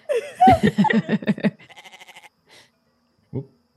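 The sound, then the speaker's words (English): A goat bleats loudly in a quavering, stuttering burst, then trails off into softer rapid pulses, with one short bleat after a brief pause. “There's a goat here.”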